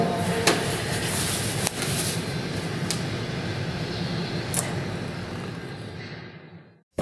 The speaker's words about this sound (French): là, on vient de s'asseoir dans le café Esperanto.